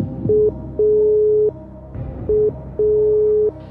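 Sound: phone call tone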